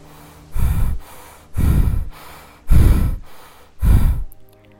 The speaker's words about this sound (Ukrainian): Ви забралися на вершину Евереста. Ви споглядаєте навколишню красу, бачите засніжені гірські верхівки. Ваше дихання все ще швидке та глибоке.